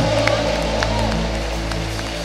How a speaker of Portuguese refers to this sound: Adora o Senhor, aplauda Ele bem forte, dê um glória a Deus.